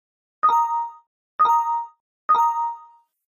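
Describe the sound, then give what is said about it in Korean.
A bright electronic notification chime sounds three times at a steady pace, each tone ringing clearly and fading quickly, with no voices around it. The chimes come from a second-hand trading app on a smartphone lying on a sofa, after a table was posted there as a free giveaway. “알림 탓에 소파 위에 올려둔 스마트폰 화면이 수시로 밝아졌다.”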